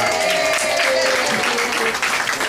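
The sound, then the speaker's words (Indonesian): A crowd claps steadily for a band, a dense, loud wash of applause filling the whole clip, with a faint thread of voice or cheering underneath. “Ini kalau tepuk tangan dong … dong.”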